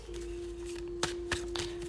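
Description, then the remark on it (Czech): Tarot cards being shuffled during a tarot reading: a few soft, papery riffles and snaps in brief bursts over a steady low electrical hum, with no one speaking. “Já už se dívám na vaši fotku, míchám u toho karty a my teda se podíváme na tu partnerskou oblast.”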